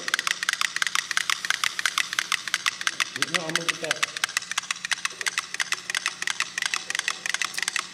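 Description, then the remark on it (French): Five metronomes tick at once and fall into sync at the same frequency, a dense stream of sharp, wooden clicks overlapping in a busy, uneven rhythm that runs throughout, with a brief low voice sound partway through. “Et de cinq métronomes qui vont se synchroniser.”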